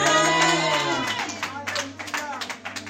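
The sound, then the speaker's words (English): An audience at a church service claps their hands in a loose, uneven burst of many overlapping claps, rising after a held tonal sound fades at the start, with a low steady hum continuing underneath. “Somebody clap your hands and shout amen.”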